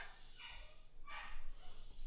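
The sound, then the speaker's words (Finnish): A dog, excited by a package arriving, barks a few times, two drawn-out muffled barks followed by a shorter one, faint against a low background hum with no one speaking. “meille tulee joku paketti tuolta, niin koira innostui”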